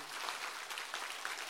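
A crowd applauds with steady, dense clapping, a continuous crackle of many hands at an even level with no voices over it.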